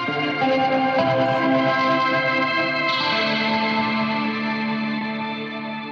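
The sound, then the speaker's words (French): Sustained electric guitar chords played through a chorus effect pedal set heavily detuned, wobbling and shimmering in pitch, played steadily and fairly loud with no voices. “mais on entend quand même le chorus, ouais. voilà, euh, voilà, donc un chorus euh, vachement euh, désaccordé”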